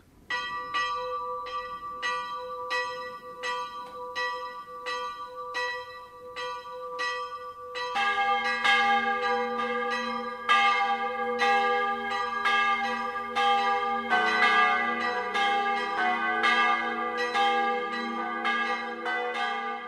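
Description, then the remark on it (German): Noon church bells of the Filialkirche St. Valentin in Ruppolding-Zell, at the foot of the Rauschberg in the southern Landkreis Traunstein, pealing in a steady rhythm with bright, ringing overtones: a single bell at first, then a second joins and later a third, deeper bell, swelling the sound. No voices. “Das Mittagsläuten kommt heute aus der Filialkirche zum heiligen Valentin in Ruppolding-Zell.”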